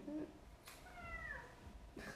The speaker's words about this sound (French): y a mon chat qui miaule. J'aime cette. Euh, trop mignon!